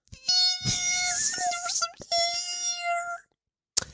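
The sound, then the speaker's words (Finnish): A voice imitates the high-pitched electrical whine of a cable modem or power adapter: a loud, thin, sustained tone that wavers briefly, breaks once, then continues for another second before stopping. “Siis semmoinen korkea sähköinen sirinä.”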